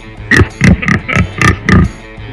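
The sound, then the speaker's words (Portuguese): A pig oinks six times in quick, steady succession, short nasal grunts that come through loud, with no talking over them. “É o porco que vive no chiqueiro.”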